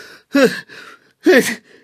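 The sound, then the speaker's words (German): Two loud, forceful, hearty sneezes, each a sharp voiced burst with a breathy rush, spaced about a second apart with quiet in between. “Könntest du nicht ein bisschen weniger herzhaft niesen?”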